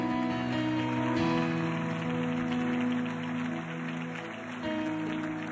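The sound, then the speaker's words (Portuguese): An audience applauds in a dense, steady wash of clapping that holds for several seconds, with sustained musical tones humming underneath and no one speaking. “Se é para aplaudir, aplaudo, irmão.”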